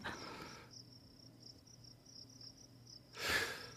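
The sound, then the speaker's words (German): A thin, steady fly-like buzz, recurring at regular intervals and always sounding the same, hums faintly in the background for several seconds, framed by soft breathy rushes of noise at the start and near the end. No one speaks. “Also ich, ich finde es schön, nur diese, diese, dieses Fliegengeräusch, das hat mich die ersten paar Mal gerade ein bisschen irritiert, bis ich gemerkt habe, es kommt in regelmäßigen Abständen und ja.”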